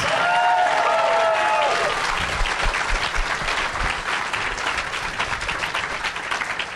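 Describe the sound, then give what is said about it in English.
An audience applauds steadily for several seconds, a dense crackle of many hands clapping, with a few high whistles or tonal cheers near the start before the clapping carries on alone. “Which, which got less of a clap.”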